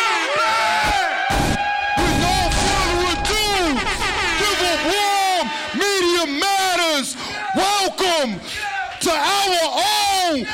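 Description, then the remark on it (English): A crowd of many voices screams "Welcome back!" together on a count of three, loud, with overlapping whoops and shouts that keep going for several seconds. “On the count of three, everybody scream, Welcome back!”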